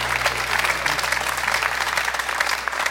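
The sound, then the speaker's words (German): Steady studio audience applause, a dense wash of many hands clapping at once that holds an even, fairly loud level throughout, with no voices on top. “Kriegst du das deinen Applaus?”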